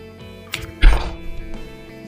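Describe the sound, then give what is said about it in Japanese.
A spring-loaded microphone boom arm is fitted onto a clamp fixed to a table: a brief clack, then a heavy thunk with a low boom and a faint rattling settle, followed by a softer knock. “はいクランプの取り付け完了しましたそしたらこれこのアームを取り付けていきたいと思います”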